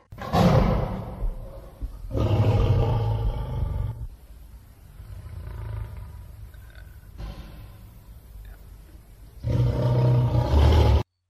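A lion roars in a series of deep, powerful bursts, loud, with quieter rumbling grunts between the louder calls and no talking.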